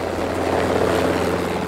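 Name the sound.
helicopter flying overhead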